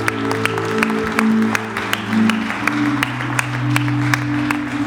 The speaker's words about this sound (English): If you're excited, slap, clap, give Jesus a big hand of claps.